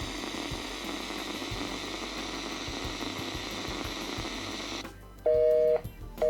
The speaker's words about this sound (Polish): Tak, radio nam szumi dlatego... O, tak, czyli mieliśmy rację. I teraz radio sobie szumi, za chwilę ten dźwięk się powtórzy.